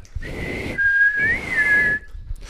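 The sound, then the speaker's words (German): A person whistles a short melodic phrase of a song on request, the clear tone gliding between a few notes over about two seconds, with breathy noise around it and no talking. “wie das Lied heißt, was der … gerade gepfiffen hat”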